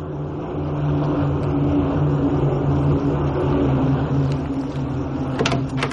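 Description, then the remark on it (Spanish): A loud, steady drone of airplane engines passes overhead, a deep rumbling hum that holds throughout with no voices. “Mira hacia arriba al escuchar el sonido de aviones.”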